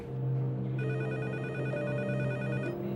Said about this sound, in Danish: Så sker der det, så ringer hans telefon. Han har sådan en øh, telefon, der står på bordet, altså med en ledning på, sådan lidt gammeldags.